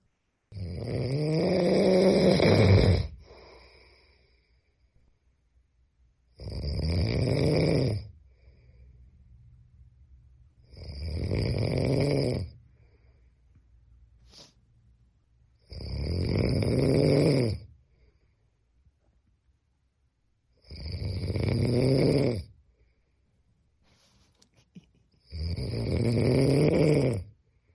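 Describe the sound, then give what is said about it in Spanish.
A man, a listener's husband, snores loudly in six long, rumbling bursts spaced a few seconds apart, each inhale swelling into a harsh, buzzing rattle, with near silence between breaths. No one speaks. “A una moto. Hombre. Pero este, este es igual que el primero, ¿no?”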